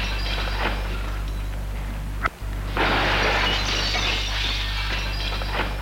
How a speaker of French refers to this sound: Vite, il prend une pierre pour taper sur la vitre et la briser. Ce n'est pas facile.